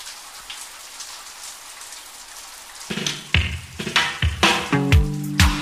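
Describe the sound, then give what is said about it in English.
Heavy tropical rain pours down in a steady hiss. Partway through, louder tonal notes like music cut in over the downpour and carry on to the end. “My God, you fly thousands of miles to get some sun that's raining cats and dogs.”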